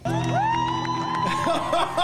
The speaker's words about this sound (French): Calmez-vous en studio, Calmez-vous. Et voilà, la foule en délire.